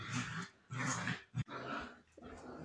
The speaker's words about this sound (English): Listen to them. Quit fighting! The dogs are playing, but they're loud.